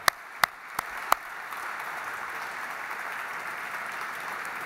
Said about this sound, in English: And this would not be possible without the partnership of the Auschwitz Birkenau State Museum and its director, the highly regarded author and historian Dr. Pio Cywiński, who is with us tonight. Let's give him a big round of applause right now.